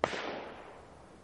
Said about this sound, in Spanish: la montó y disparó el gatillo pero no salió el disparo, por lo que volvió a montarla, saliendo disparado el cartucho no disparado y cayendo al suelo, disparando nuevamente hasta tres tiros dirigidos a cada una de las tres jóvenes.